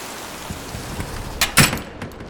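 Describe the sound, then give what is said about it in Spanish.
Heavy rain pours down in a steady hiss, broken by a couple of sharper, louder bursts near the end. No one speaks. “¡Qué chulo está lloviendo, no Álvaro! Mira nada más que rico Vocero está cayendo.”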